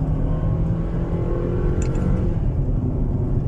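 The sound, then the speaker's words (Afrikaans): A Grand Vitara SUV engine drones steadily and loudly as it accelerates, with a brief shift in tone partway through as it changes into third gear and loses a little pull; no voices. “En derde rad. En dit voel ek omdat wat jy in derde ingaan, verloor hy bietjie stoom.”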